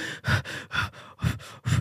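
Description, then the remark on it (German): A voice imitates people breathing in and out of large balloons: a quick, rhythmic series of about five loud breathy puffs, each short and airy, with no talking. “Dann kommen so richtig fette Luftballons an und dann setzen die sich hin und dann nehmen die den Luftballon und atmen ein und aus in den Luftballon.”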